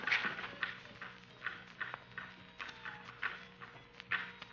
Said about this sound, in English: It is the dance of the devil dolls.